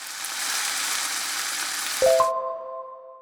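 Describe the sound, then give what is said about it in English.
Steady, crackling sizzle of food frying in a hot pan for about two seconds, cut off abruptly by a short ringing chime that fades out. “A sizzler comes from the word sizzle, which we use to describe the sound of something frying in a very hot pan.”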